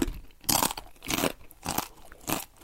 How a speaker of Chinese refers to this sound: 再配上 YouTube 上面啊有很多 ASMR Asma 的影片，这些影片呢会放大我们吃炸鸡时总是会有的酥脆的声音，